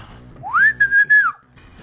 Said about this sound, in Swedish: Jag sakta börjar ta mig upp där och visslar på, eh, på Håkan.